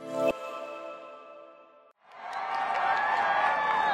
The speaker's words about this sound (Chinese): 在众人的欢呼声中，梅西感恩节大游行正式开始。街道两旁挤满民众，观众气氛非常热烈。第六大道两旁的人行道水泄不通，寸步难行。每当有花车和气球经过时，就引起民众一阵欢呼。